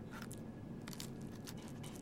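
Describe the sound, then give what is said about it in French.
Repeated crunching bites as people each chew a handful of very hard, crisp french fries, with short bright bursts of crackle over a steady low background and no talking. “Ils prennent chacun une poignée de frites et commencent à grignoter. Josephson mâche avec difficulté.”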